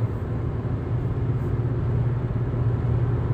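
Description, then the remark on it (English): Steady, enclosed low rumble and hum filling the space evenly inside a parked car, with muffled outside drone and no voices, constant in level throughout. “you just like to sit and talk to yourself alone in your car.”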